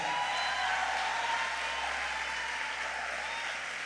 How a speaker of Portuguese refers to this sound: Vamos aplaudir os seus pastores.